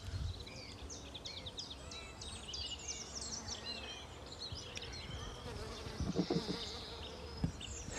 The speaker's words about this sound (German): Ich stehe hier gerade unter einer Mirabelle. Da summt es ganz kräftig. Ich gucke mal, ob ich gerade eine Biene oder irgendwas hier in der Nähe erwische.